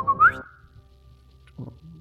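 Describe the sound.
A voice imitates a short, rising whistle at the start, bright, followed by quiet, with a brief murmur of low sound near the end.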